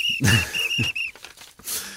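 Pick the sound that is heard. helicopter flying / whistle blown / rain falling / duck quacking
whistle blown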